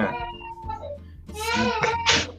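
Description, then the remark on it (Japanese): A young child babbles and squeals, with high, wavering vocal sounds rising in the second half over a low steady hum. “子供が、子供が。”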